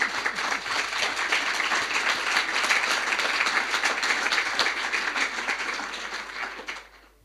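An audience applauds with dense, steady clapping that holds at an even level for about six seconds before fading out at the end. No one speaks over it.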